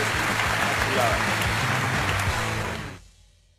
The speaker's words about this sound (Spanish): Un fuerte aplauso, por favor,